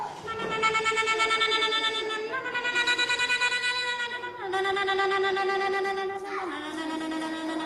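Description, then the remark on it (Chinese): A voice sings an imitation of a cicada, part of a song that sets animal calls to music: a string of long, held notes with a fast, pulsing tremble, shifting pitch every couple of seconds, steady and fairly loud with no other sounds. “蝉， 蝉就是。”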